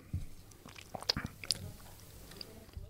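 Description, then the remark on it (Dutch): Quiet bites into cheese being tasted, followed by chewing, a few irregular soft crunches and wet clicks over about three seconds with no talking. “jij moet eerst een hap nemen en zeggen wat je proeft.”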